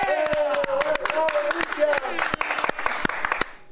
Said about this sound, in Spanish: Un aplauso para Cristian. ¡Eh!